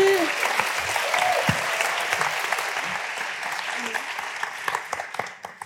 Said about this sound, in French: Vous pouvez les applaudir s'il vous plaît. Merci.